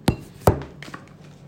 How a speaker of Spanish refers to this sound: Esperen, eh, que voy a apoyar el teléfono.